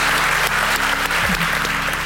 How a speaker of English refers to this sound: Give her one round of applause again, Banu Güven. Thank you very much.